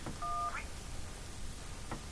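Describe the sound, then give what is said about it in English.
A single short phone keypad tone beeps once on a voicemail menu, clear, with faint clicks and a low background hum around it and no talking. “To access your print, uh, to play your active greeting, press one.”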